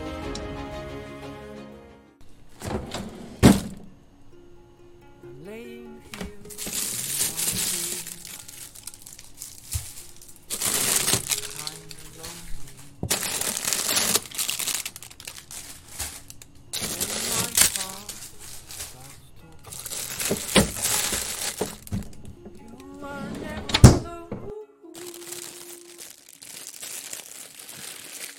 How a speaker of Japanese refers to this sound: 今回のテーマは料理になっております。寒い時期なので鍋料理でチャレンジしてみました。